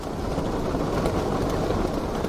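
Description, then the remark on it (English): Wind rips through about a thousand prayer flags on the north side of the mountain in a steady, dense roar, a loud rushing and fluttering wash with no pauses and no voices, holding an even level from start to finish. “This sound could be a yak dung fire inside a stove, or rain falling on a roof, but it's the wind ripping through a thousand prayer flags on the north side of the mountain.”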